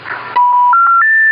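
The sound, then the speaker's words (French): A payphone's dialing tones: a burst of hiss gives way to a steady electronic tone that steps upward in pitch three times, loud, with no voices. “Là, c'est un téléphone payant.”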